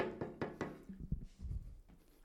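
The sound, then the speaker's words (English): Three quick, evenly spaced knocks rap on a door that has not been opened, a repeated attempt at knocking, followed by a few duller low thuds and faint rustling, all fairly quiet and with no one speaking. “All right, I'm going to knock one more time.”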